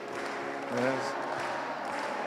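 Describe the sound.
A crowd applauds steadily in a dense, continuous wash of clapping, with voices calling out over it and a brief swell of louder vocal sound partway through.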